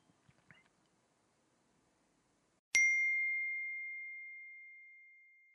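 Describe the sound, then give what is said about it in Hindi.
A single bright phone message notification ding rings out after a quiet stretch with faint rustling, its clear tone sustaining and slowly fading over several seconds. “I hope उसी का message हो नहीं है”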